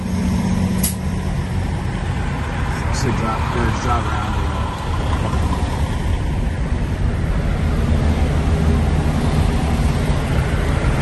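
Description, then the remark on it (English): A steady, loud low rumble of idling trucks fills the largest truck stop in the world, a couple of hours outside Chicago, on a Sunday night at about 8:10 p.m., with a short air-brake-like hiss near the start and faint, indistinct voices in the background. “So it's Sunday night here, uh, 8:10 p.m the largest truck stop in the world.”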